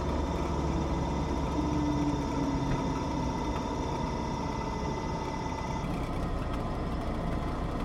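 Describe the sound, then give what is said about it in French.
A steady, low engine drone of a light aircraft hums continuously at idle during the last metres before touchdown on the runway, with a faint whine layered on top and no voices, holding an even level from start to finish. “Allez, les derniers mètres, la piste se rapproche et on entend que le moteur Quasiment silencieux.”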